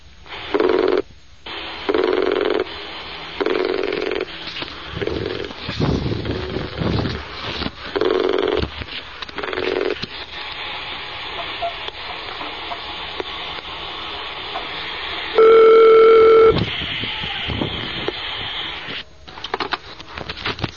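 A telephone rings over a hissy line in repeated short bursts as a call is placed for the phone question-and-answer series Silsilat al-Huda wa al-Nur, then a steady, louder electronic tone sounds briefly before the line falls quieter. No one speaks.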